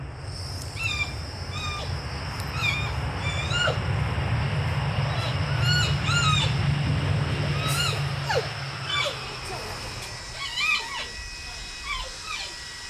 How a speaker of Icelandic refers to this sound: Þótt að væri vart greinanlegt í háfaðanum sem fylgir flúvöllum bárust hljóð úr kossunum, jafn torkenleg og þau voru ólík. Lá, gælt, urr, ílfur og undarlegir skrækir.